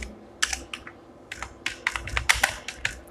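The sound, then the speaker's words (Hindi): Quick, irregular typing on a computer keyboard, a dozen or so crisp key clicks in bursts, fairly clear against a quiet low hum, with no talking, as the words "contact form" are typed into a new post. “पहले मैं एक पोस्ट बनाता हूँ ऐड न्यू पोस्ट पे क्लिक करते हैं और इस पोस्ट में कॉन्टैक्ट फॉर्म लिख देते हैं”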